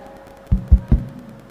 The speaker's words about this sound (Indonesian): Tadi ketuknya begini. Ja'far kalau ketuk tiga kali.